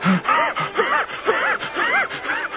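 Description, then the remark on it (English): A voice imitates the big, sharp, burning, breathless gasps of someone running fast, about five ragged heaves in quick rhythmic succession, fairly loud, each with a strained, wheezy rise and fall in pitch. “I was covering the ground so fast, I could just feel my breath coming up in big, sharp, burning gasps from way down at the bottom.”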